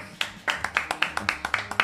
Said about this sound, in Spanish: Rufo es nuestro técnico, un fuerte aplauso para Rufo.